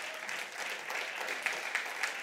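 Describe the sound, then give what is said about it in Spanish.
A crowd applauds steadily, a dense wash of clapping at even loudness with a few sharper individual claps standing out near the end, no voices over it. “la verdad es que dése un aplauso, ustedes han sido leales a Dios porque todavía están acá.”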